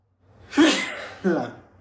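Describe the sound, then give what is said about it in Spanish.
A sharp human sneeze in two bursts, a breathy intake followed by a louder explosive expulsion, then a second quieter burst, with no talking around it. “Perdón, estornude Ah es que a veces estornudo.”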